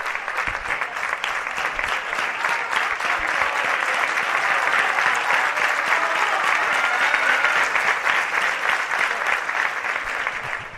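A large crowd at the Álvarez Claro stadium gives sustained, roaring applause for footballer Fran Núñez, scorer of both goals, dense clapping and cheering that stays loud and steady for the whole stretch, with no one speaking over it.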